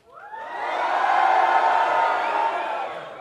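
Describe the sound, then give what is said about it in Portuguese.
A live audience at Centauro cheers and shouts a greeting together in a loud, sustained burst of mixed voices that swells quickly, holds for about three seconds, then begins to taper off. “Será cara. que dá pra ouvir a galera? Rapaziada, dá só um salve, só agora, só, só de boa.”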